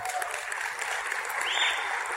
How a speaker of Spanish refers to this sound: ¿Qué más necesitamos? El liderazgo en Amway. Si conocen a ese personaje nuestro presidente amo? un aplauso para